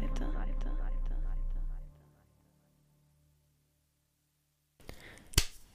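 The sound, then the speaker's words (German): A single sharp hand clap, made by the speaker clapping their own hands, cuts through soft, breathy noise, following a stretch of near silence after a short musical passage with ticking beats fades out. “Ich weiß selber nicht, warum ich gerade in die Hände geklatscht habe, aber ich habe es gemacht.”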